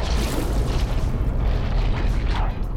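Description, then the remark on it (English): A deep, loud, mechanical-sounding giant squid roar rumbles continuously, heavy in the low end with a grinding, booming texture, and no voices. “These roars, they almost sound mechanical.”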